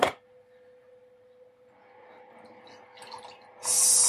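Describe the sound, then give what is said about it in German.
Milk pours into a glass after a brief clink, a soft, steady gurgling stream that grows busier, then gives way to a sudden burst of hissing noise at the end. Nobody speaks. “Ein Glas Milch. Also ah, her Milch. Schau, ob die noch langt.”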